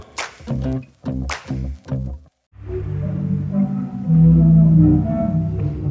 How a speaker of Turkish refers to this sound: Zadar'da bulunan bu deniz orgu dalgaların çarptığı anda bir ses uyumu içinde 7 akor